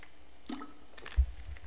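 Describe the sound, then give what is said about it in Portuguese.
A quick, quiet sip of water: a soft slurp followed by a faint gulp and a low bump, with no talking. “Vou tomar um golinho d'água rapidinho para explicar uma coisa que veio na minha cabeça, questão de milésimos de segundo.”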